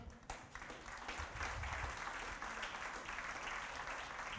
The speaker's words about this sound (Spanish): Oigan, Vamos a darle un aplauso a quienes nos ven a través de la red de internet, por favor.